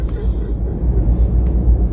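A steady, dense low rumble of an airplane engine fills the cabin throughout, on a flight from Okinawa, constant and fairly loud, with a faint murmur of activity blending into the drone.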